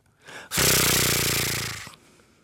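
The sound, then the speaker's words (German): A voice imitates a fishing reel whirring as a rod is cast, like a fishing-reel ringtone: a loud, buzzy, rasping whirr held for about a second and a half, preceded by a short softer breath and ending abruptly. “Das ist das Geräusch, das Sie machen, wenn Sie die Angel auswerfen.”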